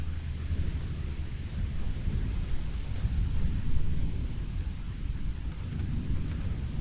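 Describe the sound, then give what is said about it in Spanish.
Heavy rain pours down in a steady, dense roar, with a deep low rumble underneath and no pauses or voices throughout. “Una gota, otra, y el cielo comienza a desbordarse. Y durante unos segundos permanecemos inmóviles, sintiendo la lluvia como si nos quisiera decir algo para nuestro encuentro de hoy.”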